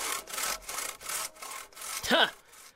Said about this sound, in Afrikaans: Hy gryp sy saag en saag elke enkele tak van die appelboom wat oor die heining hang af.